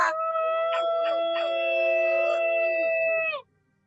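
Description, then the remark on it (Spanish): Several wolves howl together in long, sustained, overlapping tones that hold steady for a few seconds, loud, then cut off abruptly into silence. “Lobos, que se escuchen los lobos, chinga.”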